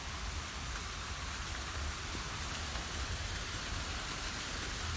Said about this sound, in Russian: Обратите внимание на фонтан. Дотянитесь до него рукой, ощутите прохладу воды.